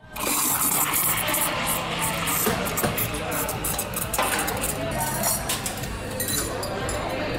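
Rush hour at Double Roasters, a modern corner café in the new library of Merrickville, inner west Sydney: a steady crowd murmur with dishes and cups clinking throughout, occasional sharper clatters, and a hint of running water in the background.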